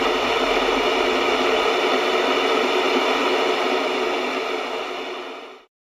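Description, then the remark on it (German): A steady, loud hiss of white noise from a diode noise generator made in the USSR around 1950 spreads evenly across the whole range, continuous for several seconds with no voices, then tapers slightly and cuts off abruptly at the end. “Weißes Rauschen Diode UdSSR ca. 1950.”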